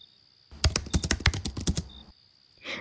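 A quick burst of typing on a laptop keyboard as someone hurriedly works on a proposal after dinner: a dozen or so crisp key clicks in an uneven rhythm, followed by a pause and a soft rustle at the end.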